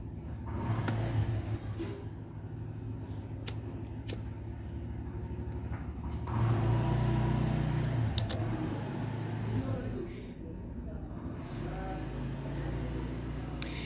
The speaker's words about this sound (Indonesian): bentar ada motor